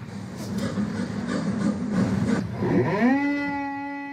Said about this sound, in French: Ah oui, c'est voilà, scie, ponceuse, stratification. Ils savent tout faire, ces marins.